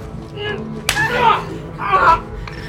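A single sharp, close slap cracks out, followed by a couple of brief, strained vocal sounds like gasps or grunts, with no clear words.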